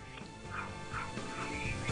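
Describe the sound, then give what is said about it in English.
A dog barks and whimpers over a phone line, several short yelping bursts in quick succession, thin and tinny with steady background hiss. “Was that uh, the dog?”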